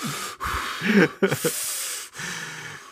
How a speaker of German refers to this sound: Olaf sagte, man hört mich immer atmen